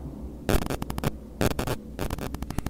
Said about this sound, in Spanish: Eso es el que hay una interferencia. Que hay interferencia ahora sí.